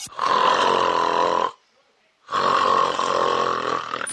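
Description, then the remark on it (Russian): Two loud, rasping snores from a sleeping person, each lasting over a second, separated by a brief quiet breath pause. The sound is harsh, with no talking. “Остановки дыхания продолжаются у храпунов по 2 минуты и так до 100 раз за ночь.”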